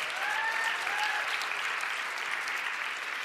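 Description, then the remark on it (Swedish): A church audience applauds the standing young people aged 20 to 30: a dense wash of many hands clapping at a constant, fairly loud level for the whole stretch, with a faint whistle-like tone drifting through early on. “Ge dem en applåd.”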